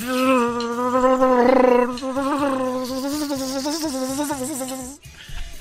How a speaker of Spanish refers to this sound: enjambre de abejas confunde trasero de hombre con un panal. Ahí tenemos el ah. video.